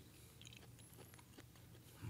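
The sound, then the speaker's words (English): Soft chewing of an apricot, with moist squelches and small clicks in an irregular rhythm, quiet with no talking. “Now I'm chewing on an apricot, but I had to try the apricot with it.”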